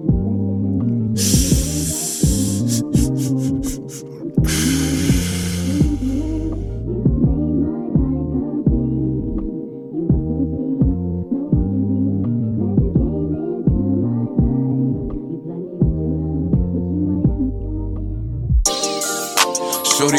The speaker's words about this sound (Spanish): Ahora, mi gente, vamos con nuestra sección de música. Espero que la disfruten.